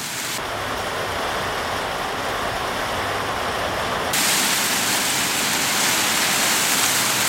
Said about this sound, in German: Regen oder Wind? Jetzt war es eindeutig, oder?